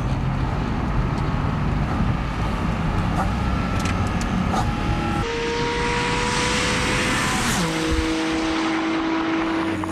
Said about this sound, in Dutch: Ja. Porsche 718 GT4 RS.